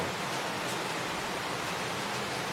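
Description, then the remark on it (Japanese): A constant wash of heavy thunderstorm rain in Singapore hisses evenly throughout, dense and unbroken, with no distinct thunderclaps or voices standing out. “雷雨の音を聞きながら雑談”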